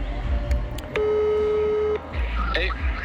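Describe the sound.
A phone call rings out over a speakerphone: one steady, pitched ring tone lasting about a second, with a low background murmur and a brief voice after it.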